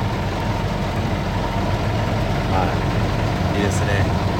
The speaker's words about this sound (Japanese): すごいなすごいすごいこれはすごいなあ収まったなこれはすごいな今ねゴミをプレスしましては